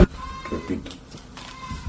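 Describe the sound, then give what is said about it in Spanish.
A goat bleats in a couple of short, wavering cries spread across a couple of seconds, clear over a faint steady background hum. “entra la cabra, cabrón, ¿no?”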